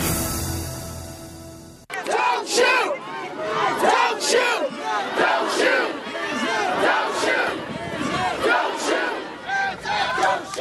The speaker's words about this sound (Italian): Don't shoot, don't shoot, non sparate, non sparate, lo slogan scandito dalle folle scese in strada dopo la decisione